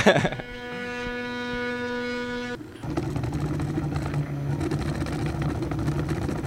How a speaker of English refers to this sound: this is sort of a do-it-yourself 3D printer, but a, uh, I assume that there are much bigger 3D printers if you're in the commercial end of this sort of uh, an operation.